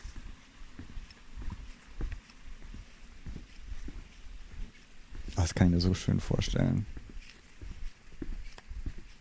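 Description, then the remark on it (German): Faint, irregular jingling of a backpack zipper pull, tapping in a loose walking rhythm throughout, recorded while on holiday, with a short stretch of someone speaking in the middle. “Leider hört man das Bimmeln von meinem Rucksack, aber oder von irgendeiner Tasche, die ich da hatte. Ein Reißverschluss oder sowas.”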